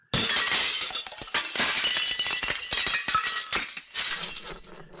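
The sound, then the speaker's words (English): A magician's table topples and a pile of props crashes to the floor, a loud clatter of smashing, clinking and rattling pieces that keeps tumbling for several seconds before settling. “Sometimes I accidentally knock over the table and all my props fall on the floor.”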